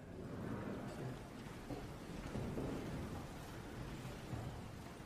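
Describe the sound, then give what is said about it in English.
Steady, continuous rainfall hisses throughout on a rainy Carolina morning, with low, muffled rumbles swelling underneath like thunder. No one speaks. “Good morning, and thank you all for being here on this moist, rainy Carolina morning.”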